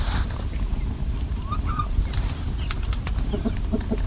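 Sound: chickens clucking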